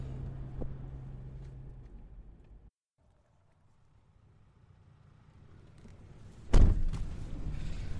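A car door slams shut with one heavy, sharp thud as someone gets into a heated car, preceded by a steady low outdoor rumble that cuts to a hushed interior quiet.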